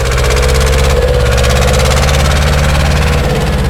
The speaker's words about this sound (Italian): Però se devi andare a vendemmiare, bisogna andare col trattore. Quindi se mi permette adesso io parto col trattore.